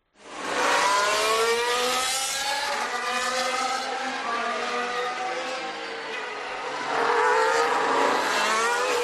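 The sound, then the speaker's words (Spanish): The Mercedes engine of a McLaren Formula 1 car screams at high revs, its harmonics rising and falling through gear changes as it holds a loud, sustained roar for the whole stretch. “Este es el motor Mercedes del McLaren.”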